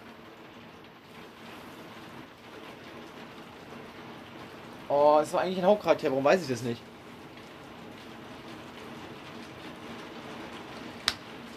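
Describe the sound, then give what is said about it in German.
Heavy rain with a little hail hisses steadily from start to finish, with a sharp tap near the end. A person speaks briefly over it partway through. “Ein bisschen Hagel ist dabei, höre ich gerade. Ja, nee, der Regen ist einfach nur so laut.”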